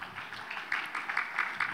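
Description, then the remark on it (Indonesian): An audience applauds for God, with steady, fairly even clapping that pulses in a loose rhythm at moderate volume, with no voices heard over it. “Kita berikan tepuk tangan dulu bagi Tuhan.”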